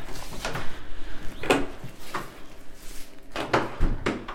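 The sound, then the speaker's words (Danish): A museum door being opened, with a series of clunks, rattles and knocks from the handle and frame over a few seconds, no voices. “Så går vi ind på selve museet her ind ad døren.”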